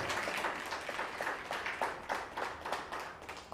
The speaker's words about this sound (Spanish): A la cuenta de 3, 1, 2, 3. Shabbat Shalom. Fuerte aplauso.